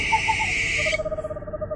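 owl hooting

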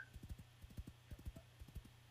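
horses galloping hooves

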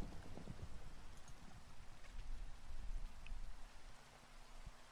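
steady rain falling

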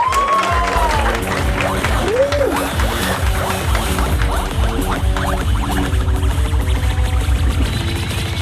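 audience applause and cheering

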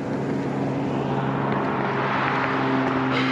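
small airplane flying overhead

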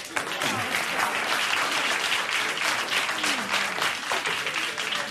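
audience applause

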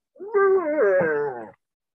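pet cat meowing

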